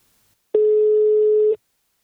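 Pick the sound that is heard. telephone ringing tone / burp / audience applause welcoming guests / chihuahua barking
telephone ringing tone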